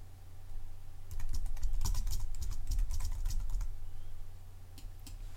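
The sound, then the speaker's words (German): Rapid keystrokes clatter on a computer keyboard as a new FTP password is typed, a quick burst of typing over a low steady hum, then a couple of isolated taps near the end. “Ich klicke also auf FTP-Passwort ändern, setze nun das gewünschte FTP-Passwort”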